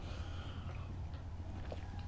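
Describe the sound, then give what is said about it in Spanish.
A long, steady slurping sip of hot, bitter coffee without sugar, airy and fairly quiet, drawn out for about two seconds with no talking. “Después de este sorbito largo para empezar la semana”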